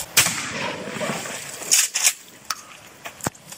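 A single loud shotgun blast, fired at a bottle, cracks out at the start and rolls off in a long, noisy decay, followed by a few softer sharp snaps and clinks, with no talking.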